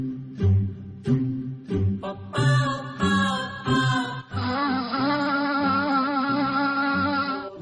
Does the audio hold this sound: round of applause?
no